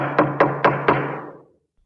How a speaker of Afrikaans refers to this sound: Hy gaan na Niels se huis toe en hy klop aan die deur.